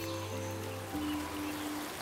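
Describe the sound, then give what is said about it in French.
Soft, steady rush of flowing water from a distant stream in a forest, a continuous gentle hiss with a low sustained drone underneath and no voices. “Vous entendez le bruit de cette eau qui coule.”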